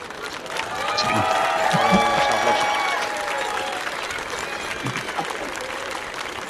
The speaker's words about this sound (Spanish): sí que se está llevando aplausos, sí. Sí merece, lo merece. Lo merece.